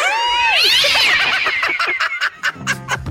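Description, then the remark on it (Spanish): A cat meows loudly, a drawn-out, wavering yowl with rising and falling pitch, followed by choppy, broken bursts of noise near the end. “Vale, así que me rasguña el gato.”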